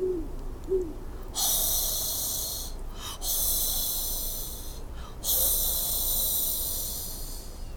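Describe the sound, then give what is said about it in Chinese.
A great horned owl gives a couple of deep, soft hoots at the start, followed by a loud, steady high-pitched hiss that continues with brief dips. “我们出乎意料的听到了能在白天听到的声音——美洲雕枭的叫声。”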